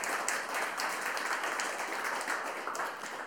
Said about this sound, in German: Könnte auch einen Applaus geben, finde ich, fürs Vorlesen.